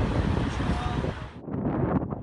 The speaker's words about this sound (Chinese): 这个风啊，很爽啊。风吹起来，这个地方它干呐，干爽，啊，美国就是一个大荒原，风吹的很舒服。